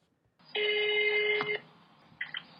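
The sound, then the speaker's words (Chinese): A telephone call ringing as a call is placed to the Hsinchu City Environmental Protection Bureau: one loud, steady electronic ring tone lasting about a second, followed after a pause by a short, quieter burst of the tone. No one speaks. “来，我们先看那个，听他打打电话过去，你知道他讲什么吗？”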